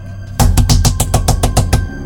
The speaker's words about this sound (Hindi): तभी हमने बाहर से दरवाजा पीटना शुरू किया दरवाजा दरवाजा खोलो